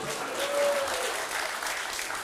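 A couple of seconds of dense, steady applause from many hands, a constant crackling wash of claps at moderate loudness with no voices over it.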